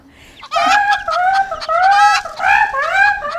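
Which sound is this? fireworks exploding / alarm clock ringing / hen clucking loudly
hen clucking loudly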